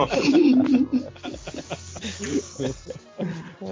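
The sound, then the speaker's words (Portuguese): A person growls out a loud, drawn-out, throaty roar imitating a savanna lion, then trails off into short breathy sounds like chuckling. “O, le, o leão da savana.”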